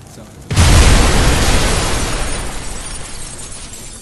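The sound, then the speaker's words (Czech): A whole building explodes during a storm with a sudden, loud, deep boom, followed by a long roar of shattering, tumbling debris that slowly fades over several seconds. “Celé stavení v jedné setině sekundy explodovalo temnou silou a bouřka v tom místě nabrala mnohem většího spádu.”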